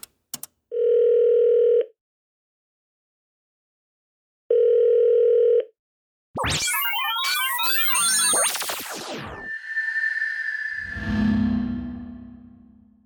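Two long, steady ringback tones with a pause between them, followed by a burst of chirpy electronic connection noise and static as the call goes through.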